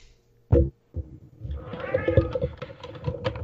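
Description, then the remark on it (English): Cats in an apartment meow and yowl as they fight, their drawn-out cries rising and falling over scuffling thumps and clatter, with one sharp bump near the start. “Looks like uh, my cats are deciding to have their own Royal Rumble right now”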